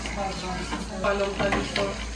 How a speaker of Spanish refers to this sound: Y aquí seguimos moviendo la mantequilla. Ya está tomando un color más oscurito y sigue hirviendo.